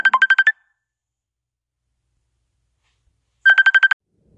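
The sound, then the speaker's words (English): A phone ringtone plays two short bursts of rapid electronic trills, each about half a second long, separated by three seconds of silence, for an incoming phone call. Clear, with no voices. “Sorry, I got interrupted by a phone call.”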